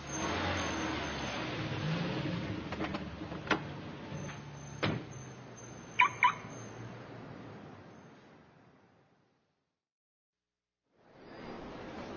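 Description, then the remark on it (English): A car engine rumbles steadily with echoes in a parking garage, with a few sharp clanks and a brief squeal, then fades to near silence before traffic noise rises again. “It is a parking garage. People come here to park their cars.”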